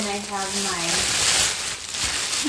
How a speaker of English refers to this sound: gonna have my my water and my potatoes just boil over.